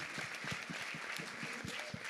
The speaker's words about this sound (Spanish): Podemos darle un aplauso a este equipo, por favor. Gracias, un fuerte aplauso.